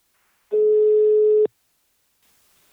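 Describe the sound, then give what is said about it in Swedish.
A single steady ringback tone of about one second sounds clearly over a phone line during an outgoing call to a business partner, then silence and faint line noise, with the start of another tone at the very end. “Nu tar vi en kort paus och ringer upp min samarbetspartner Invacare.”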